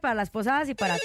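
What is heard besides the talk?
telephone ringing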